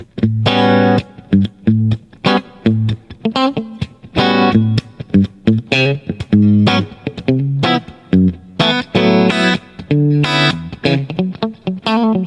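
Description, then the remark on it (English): Electric guitar rhythm comping through effects, in a particular kind of rhythm style: short, loud chord stabs played in a syncopated rhythm, with a few longer ringing chords and quick gaps between hits. No voices. “Where you're gonna either be playing, you know, rhythm comping like that or you might be playing some smooth, silky smooth chords.”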